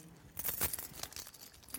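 A bunch of keys jangles in a quick burst of bright metallic clinks, fading into lighter scattered rattles.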